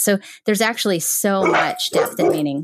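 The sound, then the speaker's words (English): A person's own dog barks in the background while the person keeps talking over it; the barking is partly buried beneath the steady speech. “I'm so sorry about my dog.”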